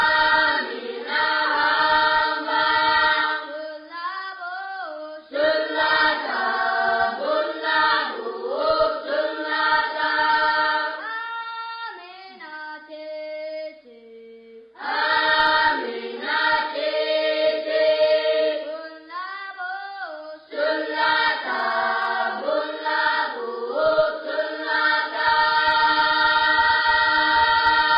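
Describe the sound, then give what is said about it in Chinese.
A school's children's choir sings a bright, steady melody in sustained harmonic tones, recorded and used as the school's class bell, loud and continuous, with a short pause near the middle before the singing resumes and carries on to the end. “那既然这样子，上课钟声又响了，我就要去下一堂课了”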